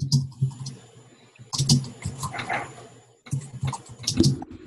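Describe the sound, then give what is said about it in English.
Rapid typing on a computer keyboard in uneven bursts, a flurry of clicky keystrokes, a short pause, then another run of tapping. Moderately loud, with no voices. “Who's typing on the computer right now? I can't see them, but I can hear them.”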